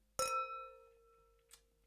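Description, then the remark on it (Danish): Glasses of rosé wine clink together once in a bright, ringing toast, the tone hanging and slowly fading, followed by a faint second tap near the end. “skål ud igen.”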